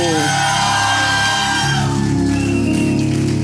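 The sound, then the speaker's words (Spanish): A crowd of people shouting and whooping with joy, a loud, sustained roar of many voices with no single speaker standing out, as an audience gives a shout of jubilation at a preacher's call. “alguien siente, se dando un grito de júbilo.”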